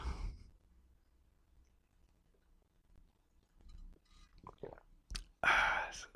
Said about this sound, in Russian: Я даже вот воды могу попить, смотрите.